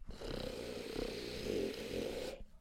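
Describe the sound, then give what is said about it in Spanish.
A voice imitates a sleeping man snoring loudly, a single long, rough, rattling snore held for over two seconds before cutting off abruptly. “Porque pasamos y escuchaba roncando”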